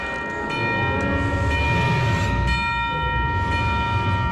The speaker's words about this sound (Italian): Figure ostinate di campane.